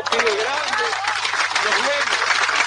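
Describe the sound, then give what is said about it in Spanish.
A steady wash of applause from a group welcoming a new group administrator fills the whole moment, fairly loud, with voices talking or calling out over the clapping. “aplauso. tenemos el aplauso, tenemos todos juntos.”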